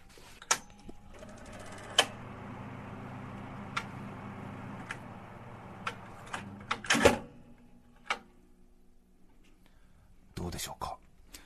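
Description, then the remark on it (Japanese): A National electric shutter-type ventilation fan, 20 cm, model FV 20FMB, whirs with a steady, airy hum and low motor drone, broken by several sharp mechanical clicks as it switches between its two speed settings and then reverses its blades. “この音は、ナショナルの電動シャッタータイプの音になります。”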